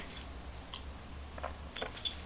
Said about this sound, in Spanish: El cafecito de mitad de la semana es muy, muy necesario, ¿sí? Porque falta todavía mucho trabajo informativo, así que me voy a dar este sorbito amargo y más que necesario hoy.